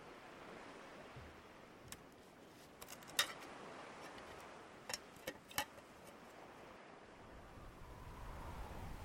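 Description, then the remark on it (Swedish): A soft, steady rush of wind blows outdoors, with a few faint clicks scattered through it and the low rumble swelling slightly near the end. No one speaks. “Ta ut fotografiet och låt vinden göra henne fri.”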